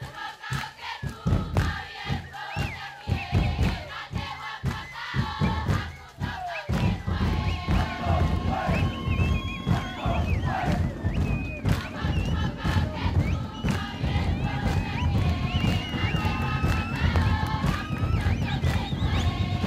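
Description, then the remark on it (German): A Hakamanu ceremonial bird dance at a festival: heavy rhythmic stamping thuds and shouting men, joined by feather-clad women singing as they dance around them, swelling after a few seconds into a dense, loud, continuous din, with loud, deep drums setting the rhythm. “Beim Hakamanu, auch genannt der Vogeltanz oder Tanz der Götter, singen die in Federn gekleideten Frauen, während sie um die stampfenden, teilweise schreienden Männer elegant herumtanzen.”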